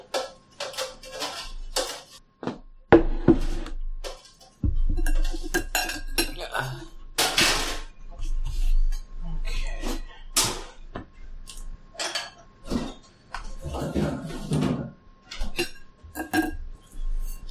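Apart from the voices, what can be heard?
dishes and cutlery clinking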